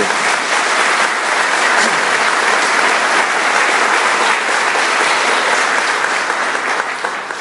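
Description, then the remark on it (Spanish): Loud, sustained audience applause given for the Holy Spirit fills the whole stretch, a dense steady clatter of many hands clapping with no pause, easing slightly only at the very end. “Un aplauso fuerte para el Espíritu Santo.”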